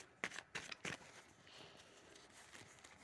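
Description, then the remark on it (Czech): Tarot cards being shuffled for a yearly reading: three quick papery riffles at the start, followed by a softer, steady rustle of cards sliding together. Quiet overall, with no voices. “Vy jste si přála roční, tak už míchám karty a dívám se na vaši fotku.”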